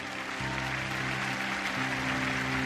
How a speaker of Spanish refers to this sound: Dale un aplauso al Señor, celebra, celebra, celebra al Rey. Vamos, dale un aplauso, celebra al Rey de Reyes.